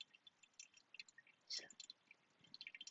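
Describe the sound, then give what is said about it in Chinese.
Faint, irregular coffee drips patter during pour-over brewing, soft little taps with one fuller splash partway through, then a quicker run of drips near the end. No voices. “咖啡在滴水的声音吗？滴咖啡的声音。”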